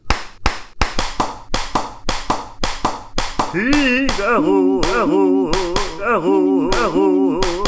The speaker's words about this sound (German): Das beste Klatschen ever.